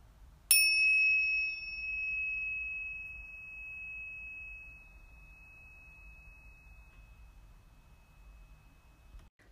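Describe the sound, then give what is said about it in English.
A single struck meditation bell, rung to close a meditation practice, rings out with a bright, clear tone and then sustains a long, slowly fading hum over faint background hiss, with no one speaking. “And just prepare yourself to receive the sound of the bell to close your practice and lifting your gaze to proceed with ease into your day or evening.”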